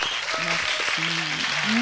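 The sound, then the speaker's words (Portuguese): An audience claps in steady, dense applause that holds at an even level throughout, with a few voiced cheers or whoops rising over the clapping, welcoming a guest speaker, a former consul of France. “Uma salva de palmas”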